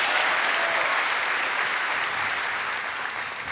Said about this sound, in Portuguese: pode dar uma salva de palmas ao Senhor, pode dar um glória a Deus em nome de Jesus.